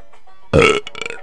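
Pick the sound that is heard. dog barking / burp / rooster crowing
burp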